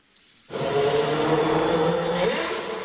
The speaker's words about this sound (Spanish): Tan pronto como el icónico ruido del poderoso motor del RB7 rugió, en segundos Checo Pérez arrancó como bólido para complacer a sus miles de seguidores y lo hizo así.